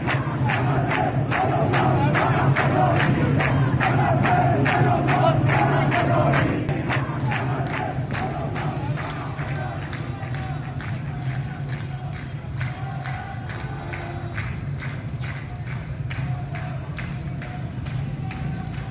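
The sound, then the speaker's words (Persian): A street protest crowd in Behbahan, Khuzestan province, Iran, chants in a steady rhythm, many voices shouting together over sharp, regular claps or beats, loud throughout and easing slightly in the second half. “اکنون صدای اعتراضات یک بار دیگر از بهبهان در استان خوزستان بلند شده است.”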